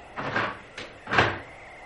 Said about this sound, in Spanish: Se abre la trampilla de la puerta.